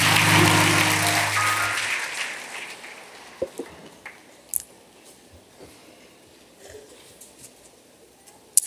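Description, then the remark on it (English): An audience gives the Lord a hand clap praise during a church service, applause dense and loud for the first couple of seconds over a low sustained tone, then thinning out into a handful of scattered, isolated claps before trailing off. “Give the Lord a hand clap praise.”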